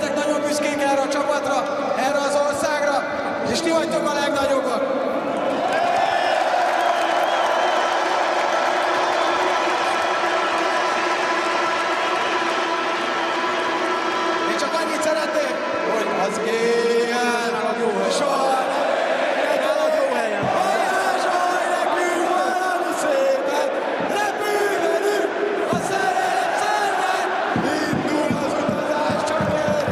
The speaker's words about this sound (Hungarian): Sőt, amikor a magyar futball korszakos figurája, tulajdonképpen legendája, Csúcsák Balázs, a görögök elleni búcsú meccse történt meg, akkor a meccs végén, a búcsúzáskor is ezzel a dallal énekeltette meg a közönséget.